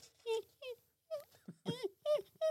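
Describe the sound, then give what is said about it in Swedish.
A person imitates how they whimpered in their sleep, like a sad puppy, with a series of short, high, wavering whines and yelps, about eight in an uneven rhythm, fairly loud. “en ledsen hundvalp.”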